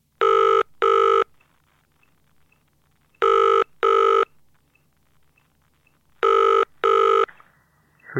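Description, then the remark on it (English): A studio telephone calling a courier company: the ring tone repeats its double-burst pattern three times, loud and evenly spaced, with a faint hum between rings. It cuts off near the end as if the line is picked up. “Unless I use the studio phone.”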